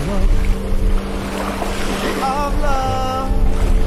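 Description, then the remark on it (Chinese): Sea waves rush and wash continuously against the shore, a steady broad roar with a low droning hum underneath and a brief warbling tone partway through. No one speaks. “走在海边跌跌撞撞的，你和海浪真的游戏，只有你们自己能懂。”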